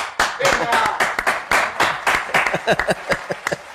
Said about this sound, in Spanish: Usted, un aplauso, weón, un aplauso porque hay que celebrar esto, weón. Pero que sea un aplauso de verdad, compadre, weón.